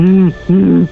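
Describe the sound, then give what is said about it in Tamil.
A person voices two short, sustained growling, grinding noises in a row, fairly loud, imitating an animal's rumbling complaint, with a brief pause between them. “சடனா வந்துட்டு ஒரு முறுக்குற சவுண்டு ரொம்ப கொடுத்துக்கிட்டு இருந்தாரு கத்துல அது முறுக்கிற சவுண்ட்”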